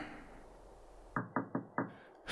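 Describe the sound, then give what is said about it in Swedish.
Four sharp knocks on a door in quick, slightly uneven succession, fairly loud, after a brief stretch of quiet room noise; no one speaks. “Van Munk, det, det är någon vid dörren.”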